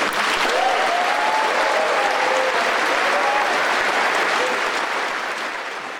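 applause

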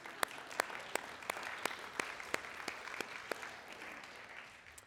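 audience applause

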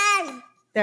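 baby babbling

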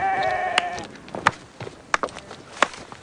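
sheep bleating

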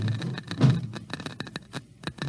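geiger counter clicking

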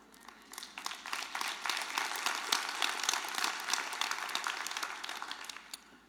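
audience clapping

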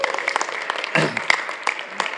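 audience clapping

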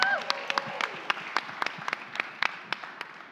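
audience applause and cheering

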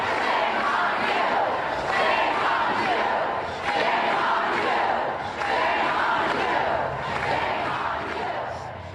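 crowd chanting

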